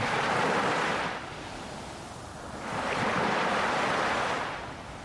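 Ocean waves crash against a rocky shore, two loud surging rushes of surf a couple of seconds apart with a softer hiss of water between them, and no voices.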